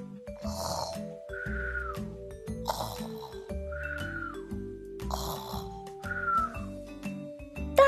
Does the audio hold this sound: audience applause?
no